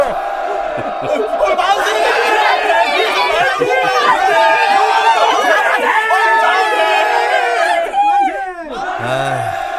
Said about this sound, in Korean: 그, 저, 저 만세 외치는 자들이 누군가? 우리 마을 사람들은 아닌데 말투를 보아하니 동북면 쪽 같더이다